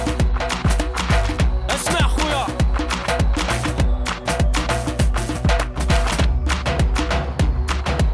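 A song with a female singer plays loud and up front, carried by a steady, punchy percussion beat and dense instrumentation, with no talking over it.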